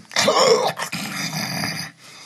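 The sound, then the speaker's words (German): A person imitates someone snoring in their sleep with a loud, rasping, growl-like rumble, in two drawn-out bursts with a short break between them, then fading into quiet. “hat neben und dir geschnarcht”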